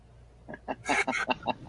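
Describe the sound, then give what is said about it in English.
A duck quacks in a quick, rhythmic series of about half a dozen calls, fairly loud, with a harsher burst in the middle. No one speaks. “I, I got to ask though, am I insane? Or did that duck look like it had a tracking device on its leg?”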